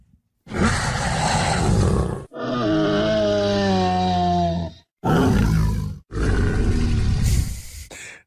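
A loud Triceratops dinosaur sound effect from a film: a harsh roar, then a long wavering, tonal bellow, followed by a short growl and another rasping roar, all without any talking.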